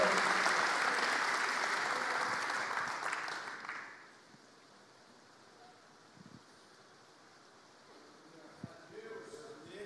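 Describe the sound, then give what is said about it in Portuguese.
A crowd applauds the Lord in a dense, steady wash of clapping for about four seconds, then it fades out, leaving quiet background noise with a few faint murmurs. “Ah, vamos aplaudir o Senhor, gente.”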